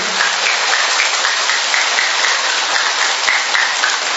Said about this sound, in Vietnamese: Chúng ta một tràng pháo tay thật lớn để chúng ta tạ ơn Chúa và cảm ơn các bạn trẻ to nữa lên.